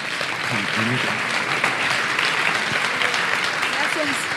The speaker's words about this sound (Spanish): Un aplauso. Gracias.